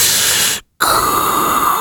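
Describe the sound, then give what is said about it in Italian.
A voice imitates Darth Vader's mechanical breathing: a loud, hissing inhale, a brief silent pause, then a long raspy exhale with a whistling, filtered edge. “E se poco poco hai dei problemi di respirazione, respirazione sei subito Darth Vader.”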